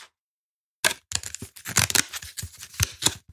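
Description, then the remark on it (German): Hard plastic being crinkled: after a short silence, a dense run of sharp, irregular crackles and snaps continues to the end, with no voices. “Das ist hartes Plastik.”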